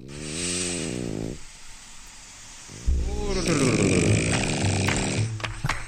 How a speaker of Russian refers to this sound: пророчески, пророчески храпел, да, пророчески.